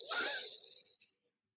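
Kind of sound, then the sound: human body sound, deep breath inhaled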